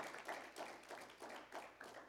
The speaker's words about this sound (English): Come on, y'all give the Lord another hand clap of praise.